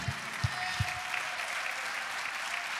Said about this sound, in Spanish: los aplausos que sea para Dios. Amén, amén, amén.